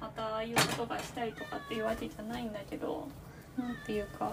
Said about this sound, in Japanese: めっちゃ猫が鳴いてます今ドアを閉めて料理をしているので。